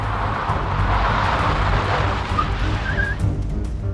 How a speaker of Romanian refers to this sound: Când se ia colțul, care dă spre intrare de la garaj, o mașină neagră îi taie calea și frânează brusc.